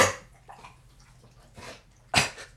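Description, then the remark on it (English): A dog named Petey coughs and hacks in a few harsh, raspy bursts spread unevenly, the loudest and fullest one coming near the end, with no talking over it. “I'm sorry, that's his dog.”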